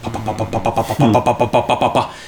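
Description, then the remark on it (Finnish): A voice imitates a sputtering, malfunctioning Blaupunkt television whose sound did not work, producing rapid rhythmic bursts of buzzing, crackling vocal noise for about two seconds, fairly loud. “mutta erillisessä huoneessa oli sitten niin pelaamiselle pyhitetty tämmöinen Blaupunk-telkkari, joka oli ihan hirveässä kuvasissa, siinä ei äänet toiminut, se papatti ihan niin kuin se kuuluu”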